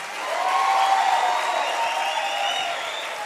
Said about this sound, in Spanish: Apláudale fuerte, grita haga algo.